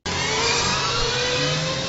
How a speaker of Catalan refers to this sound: La FIM, la Federació Internacional de Motociclisme, aposta per un campionat de motos elèctriques que sonen així.